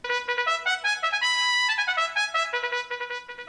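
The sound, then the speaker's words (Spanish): A bright brass melody on a trumpet plays a quick run of notes with a long held tone in the middle, loud with no voices. “Se deja sentir la trompeta.”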